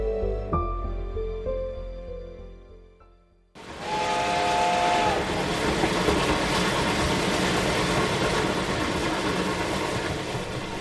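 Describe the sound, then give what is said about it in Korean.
After a short musical passage fades out, a loud, steady roar of a moving train bound for Busan takes over, with a brief steam whistle early on and a continuous hissing rumble until the end. “박석의 그림을 찾아 사토는 부산행 열차를 탄다.”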